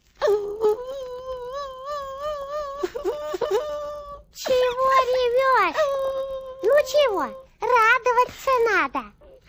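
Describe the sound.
Loud whimpering cries in several drawn-out bursts, the voice wavering and sliding up and down in pitch with short breaks between wails, like a distressed child sobbing.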